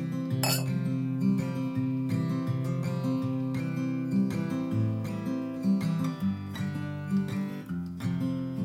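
A single bright clink of glasses rings out near the start, like a toast, followed by steady guitar music that plays throughout.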